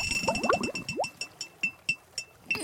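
Underwater herring farts, which go on all day long: a rapid run of rising squeaky chirps that thins into sharp ticking pulses spaced about a third of a second apart, over a thin steady whine.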